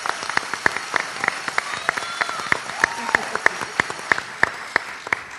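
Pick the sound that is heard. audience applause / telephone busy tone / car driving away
audience applause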